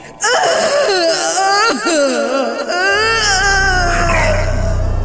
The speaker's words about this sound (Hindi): अपमान की ये पीड़ा उसके लिए असहनीय हो गई थी वो रोती कलपती अपने भाइयों के पास दंड कारण्य पहुंची और मुंह छिपाकर चीतकार करने लगी